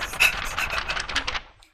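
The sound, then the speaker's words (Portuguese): Dry scratching and rustling of paper as a pen writes on a sheet for a game of Stop, with quick irregular strokes over about a second and a half before trailing off. “Barulho vai. de papel, ó. Tem que ser papel e caneta.”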